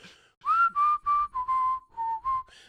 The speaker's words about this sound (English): a man who wouldn't stop whistling in Semisonic's closing time